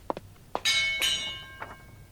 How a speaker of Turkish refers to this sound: Beni çağırmak için bunu kullan. Zil.